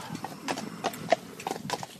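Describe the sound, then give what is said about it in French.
A farm horse's hooves clip-clop in a steady, irregular rhythm, several sharp knocks with faint background noise and no talking. “Depuis quand utilisez-vous les chevaux dans l'agriculture ben Moi, depuis une dizaine d'années.”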